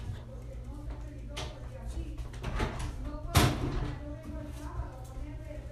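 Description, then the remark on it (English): A door opens and shuts as someone walks in and puts Tupperware in a cabinet, with a few soft knocks and rattles and one louder thudding bang partway through, over a steady low rumble and faint muffled voices. “Door My mom just walked in and put Tupperware in my old cabinet.”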